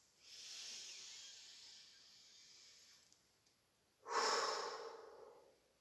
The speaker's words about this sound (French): Puis on va faire deux grandes respirations. On prend une profonde inspiration et on expire tout l'air de nos poumons une deuxième fois.